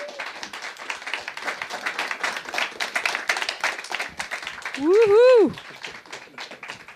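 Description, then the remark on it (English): A festival audience applauds the bands with dense, steady clapping for several seconds, fading toward the end, when a loud rising-and-falling whoop or whistle-like cheer briefly cuts through. “has my Big applause for the bands.”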